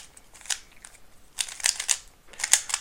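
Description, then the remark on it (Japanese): A Rubik's cube being twisted to scramble it, making quick plastic clicks and clacks in three short, irregular flurries. The sound is fairly soft and there is no talking. “これをさこう例えばこのスクランブルするのにねこう、まあ、ただ回す意味もなくこう、まあ、崩すためにね回してるんですけどこの崩すために回すだけでもこれがねなんかストレス解消というか癒しになるよねって気がするんですよ”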